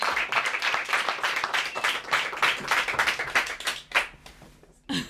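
A studio audience claps steadily for several seconds, a dense patter of many hands that thins toward the end before a brief final burst.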